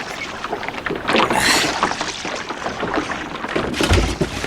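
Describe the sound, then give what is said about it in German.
Water sloshes and splashes against a small rowboat as someone is helped aboard by two others, with wooden knocks and bumps of the hull, ending in a heavy thud. “Helft mir mal ins Boot, ihr beiden.”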